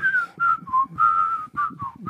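A person whistles a short melodic tune, with several sustained notes and small pitch slides in quick succession, clear with no talking.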